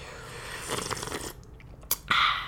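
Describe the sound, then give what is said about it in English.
A wet slurping sip of tea drawn in over a couple of seconds, with a brief sharp click partway through and a final airy, hissing pull at the end. No talking. “slurping.”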